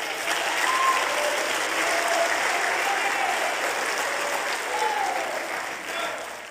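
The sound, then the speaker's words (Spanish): Loud, sustained applause from an audience, given to the Lord during a worship service, a dense wash of clapping that holds steady for several seconds with faint scattered voices and cheers mixed in, tapering slightly at the end. “Dile un aplauso fuerte al Señor.”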